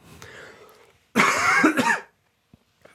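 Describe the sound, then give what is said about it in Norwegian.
A single loud, harsh cough burst from a person who is sick, in a studio, preceded by a softer throat-clearing rasp, then quiet with a couple of faint clicks. “Fordi jeg er syk, og da har jeg innimellom behov for å hoste.”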